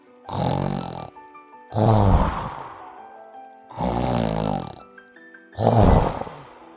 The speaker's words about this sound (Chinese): 可是啊，睡觉的河马只管睡它的觉。打他的呼噜，